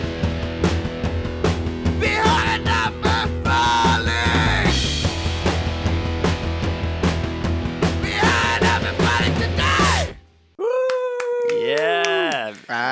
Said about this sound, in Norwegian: take it away with your uh, new jingle.